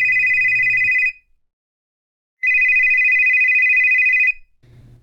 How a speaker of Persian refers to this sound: وقتی سوار ماشین شدیم موبایلم برای چندمین بار شروع به زنگ زدن کرد